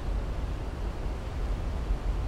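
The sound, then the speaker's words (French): Niagara Falls roars without pause, a dense, steady rush of water heavy in the low end, too loud to talk over without shouting. It fills the whole scene evenly, with no voices or other sounds breaking through. “Face aux chutes, le son est trop fort pour se parler sans crier, fait qu'on regarde les chutes en silence.”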